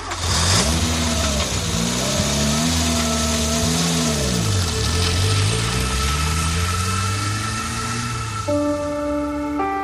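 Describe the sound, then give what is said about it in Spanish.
A car engine revs loudly, its pitch climbing and dipping through several surges of acceleration before settling into a steady, higher drone near the end. “enfadado por el desplante de su pareja Nicole, subió a su vehículo lleno de ira”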